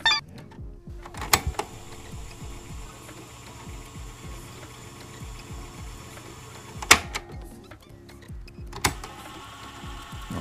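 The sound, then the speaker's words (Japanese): A radio-cassette player's mechanism whirs steadily as it plays a cassette tape, punctuated by a few sharp plastic clunks of buttons and the tape being ejected, with no voices. “1つはカセットテープを再生するラジカセの音と取り出す音。”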